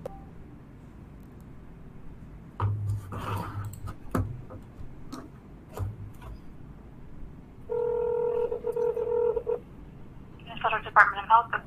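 Clicks and short beeps of a phone being dialed for a call to a Corona hotline, then a steady electronic ringing tone and a brief warbling tone at the end, over a murky, noisy background.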